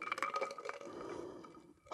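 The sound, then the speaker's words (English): A glass clinks a few times as someone drinks water, its faint ringing tone lingering, with soft handling and sipping noises and no voices. “I need, a, I need a drink of water. Hang on.”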